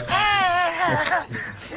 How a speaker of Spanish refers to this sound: Están llorando duro.